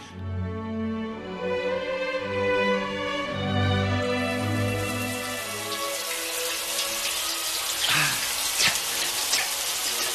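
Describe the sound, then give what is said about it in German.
A few seconds of sustained tonal sound give way to a steady, loud hiss of running shower water spraying continuously as someone showers before going for a swim, with occasional splashy bursts near the end. “I've got to have a shower first.”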